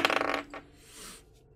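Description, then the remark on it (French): Dice rattle and clatter briefly across a hard surface, a quick flurry of sharp clicks that settles within a moment, fairly clear, with no one talking; the dice are rolled on a table for an athletics check. “Je te demande de faire un jet d'athlétisme, s'il te plaît.”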